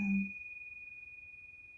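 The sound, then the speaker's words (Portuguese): During a guided relaxation meditation, a Tibetan bell is struck once, a brief low thud giving way to a pure, steady high ring that lingers quietly and evenly, fading only slightly as it resonates. “Vai deixando esse som ecoar dentro de você.”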